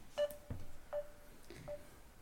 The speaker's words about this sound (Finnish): Joo. Olin vahingossa soittamassa